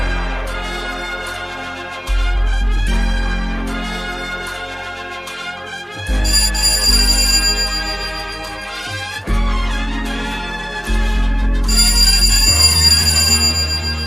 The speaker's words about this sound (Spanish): Bueno, es increíble. Suena un, un timbre en la radio. No sé quién ha inventado este estudio. Me voy a tener que levantar.